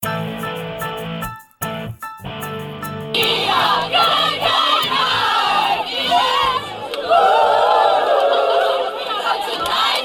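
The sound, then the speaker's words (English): A large crowd cheers and shouts in celebration of the Supreme Court decision overturning Roe versus Wade, a dense roar of many voices with rising yells. It is loud and sustained after a brief, choppy opening of a few seconds. “The celebrations have begun.”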